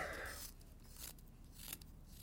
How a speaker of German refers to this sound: ich höre, wie du zeichnest.